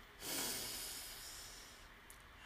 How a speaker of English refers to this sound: We're just breathing our normal breathing right now. Look up and down around. Then take a deep breath in and notice what you smell.